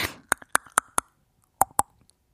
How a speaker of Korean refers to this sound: 오늘의 정답은 수박 때리는 소리였습니다.